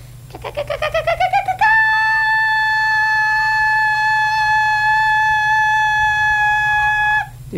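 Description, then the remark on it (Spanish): A voice imitates a cicada: about ten quick rising pulses, then a loud, steady, high buzzing tone held for over five seconds before it cuts off abruptly. “Y mi mamá te decía, ¿viste cuando esa es la chicharra que hace?”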